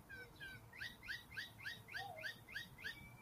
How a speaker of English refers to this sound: I want the blackbirds to, to tire themselves out here because they're gonna start squealing, screeching, squawking like they did when I first started.